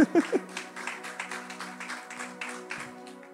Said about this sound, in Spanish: Un aplauso a los muchachos aquí que me ayudaron.